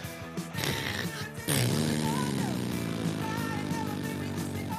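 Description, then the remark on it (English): Someone imitates a droning fantasy blimp engine with the voice, a low buzzing hum that swells louder after a second and holds steadily for several seconds, fairly loud. “that was a pretty good fantasy blimp sound”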